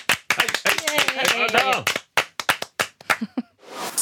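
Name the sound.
hand clapping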